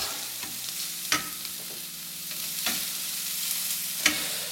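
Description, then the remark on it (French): Onions sizzle steadily in a pan with a continuous crackling hiss, broken by three sharp scraping clicks as a utensil turns them, spaced roughly a second and a half apart. No one speaks. “j'en profite tout de suite pour tourner mes oignons, j'éteins le timer.”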